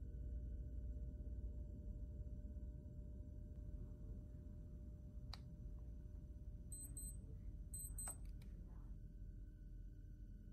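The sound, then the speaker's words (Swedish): A digital clock in a tent gives two brief bursts of high, thin electronic beeps, each a quick cluster, fairly faint over a steady low rumbling hum, with a sharp click. “Det lät som en digital klocka.”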